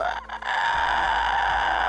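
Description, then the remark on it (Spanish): A person voices a shrill, drawn-out creature shriek, imitating a monster crying out after one of its tentacles is cut off; a loud, strained, high-pitched screech held for nearly two seconds after a brief catch at the start. “Y pega un chillido así horripilante.”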